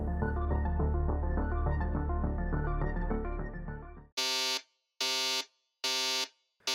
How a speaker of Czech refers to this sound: Budík zazvonil přesně v 6.30 středoevropského zimního času.